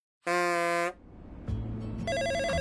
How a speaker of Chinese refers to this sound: 叮铃铃，一阵清脆的电话铃声从熊猫外形的建筑物中传来。正在做家务的科科放下手里的抹布，走到电话机前接听了电话。